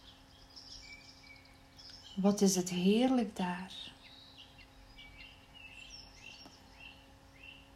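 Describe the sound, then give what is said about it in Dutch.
Soft bird chirps and tweets drift through the background in scattered bursts, with a faint hiss of leaves rustling in a tree, while a voice speaks briefly in the middle. “Ontspan je nu maar even en laat je heerlijk wegzinken je luistert naar het zachte geritsel van de bladeren in de boom en het mooie gezang van de boom, van de vogels.”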